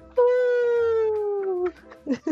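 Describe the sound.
A person imitates a wolf howl with one long, loud, sustained vocal tone that slowly sinks in pitch over about a second and a half, followed by a few brief voice sounds.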